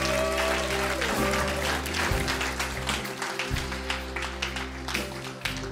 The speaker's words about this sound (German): Lass uns Gott einen riesen Applaus geben.